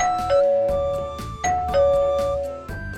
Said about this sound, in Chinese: 哼哼猪捧着大蛋糕来到了玄教授家门口，小泼猴按响了门铃，